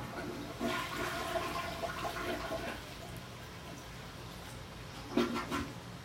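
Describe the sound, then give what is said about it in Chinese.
A toilet flushes with a rushing, hissing gush of water lasting about two seconds, fading to a quiet trickle before a short second burst of water near the end. No one speaks. “让马桶变干净。”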